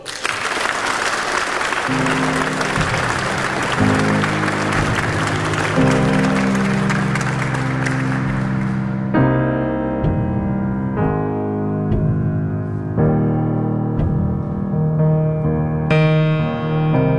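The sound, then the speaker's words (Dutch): Loud, thunderous applause fills the first half, a dense hiss of many hands clapping over a band starting to play, then the clapping drops away and only the music continues. “Wij gaan gezellig in de blauwe sofa zitten, terwijl jullie, beste luisteraars van Radio 1, een daverend applaus geven.”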